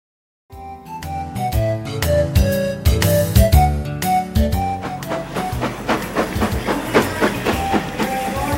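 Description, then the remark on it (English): A train pulls into a train station with steady, rhythmic clacking over the rails, tonal squealing and rumbling layered on top, loud throughout with no voices. “A train was pulling in.”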